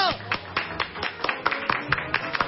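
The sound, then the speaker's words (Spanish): Applause from a small group in a studio for the team of engineers, with sharp claps landing in a steady, fairly even rhythm for a couple of seconds and voices murmuring underneath. “Eh, un aplauso para ellos.”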